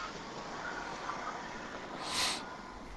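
vehicle, train passing by

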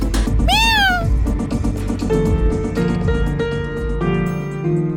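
animal, kitten meowing

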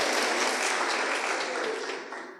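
crowd, applause

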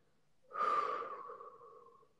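human body sound, slow deep exhale

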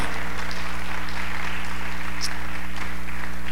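crowd, audience applauding

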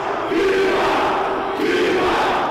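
crowd, crowd shouting

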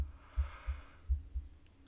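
human body sound, yawn

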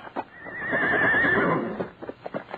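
animal, horse neighing

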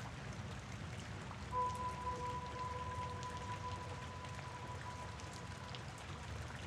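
nature, rain falling

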